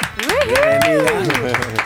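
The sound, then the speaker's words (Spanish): A short burst of scattered clapping runs under a drawn-out voiced whoop that rises and falls in pitch, steady and fairly loud throughout, applause welcoming a female guest. “Tenemos una invitada que siempre hay que darle un aplauso un aplauso, Por favor.”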